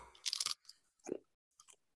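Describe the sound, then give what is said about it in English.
Crunching of a cheese crisp into the microphone, a loud brittle crunch followed by a few quieter chewing crunches in an irregular rhythm, with no talking. “That crunch on the mic.”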